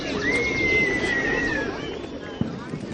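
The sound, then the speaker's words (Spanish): Birds singing outdoors in a park on a sunny day, with a long, clear whistled note carrying over a steady wash of background noise and faint chatter, followed by a brief sharp knock near the end. “El lugar sonaba pájaros cantando, niños jugando y perros ladrando.”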